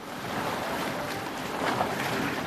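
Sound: ocean waves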